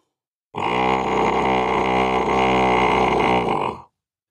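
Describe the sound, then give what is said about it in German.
A human voice lets out a single loud, sustained bellowing battle cry, imitating the deep roar of a giant stag, held for about three seconds with nothing else around it. “dieser Kampfschrei klang tatsächlich wie das Röhren eines riesigen Hirsches”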